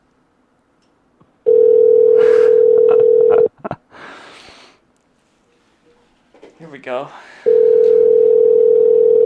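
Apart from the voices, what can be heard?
phone call ringing tone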